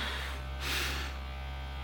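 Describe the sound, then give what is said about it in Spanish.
A vibrator buzzes steadily, a constant electric hum that briefly swells louder and brighter midway before settling back to an even drone, with no voices. “Te inclinas hacia adelante en tu silla y empujas el vibrador hacia mí.”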